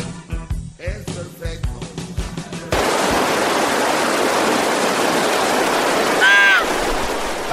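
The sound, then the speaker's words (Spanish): A few seconds of voices and clatter give way to a loud, steady roar of rushing river water, with a brief warbling tone near the end, as blindfolded people ride down the river in a small boat. “Vendada, Ahí van en su lanchita, vendados.”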